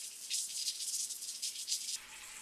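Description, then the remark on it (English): Steady hissing of water running from a sink tap about two feet away, a continuous bright white-noise rush with slight surges, alone with no voices. “Next, we're back to the normal dictation mode with no other changes other than having water running in a sink approximately two feet away which is producing a consistent white noise kind of signal.”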